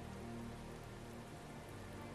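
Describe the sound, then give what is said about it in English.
Steady rain falls on a hard surface, a continuous dense patter and hiss that holds even for the whole stretch, fairly soft and with no voices; rain in a particularly rainy summer. “It was a particularly rainy summer, one that would certainly go down in history, and oddly, Holmes adored it.”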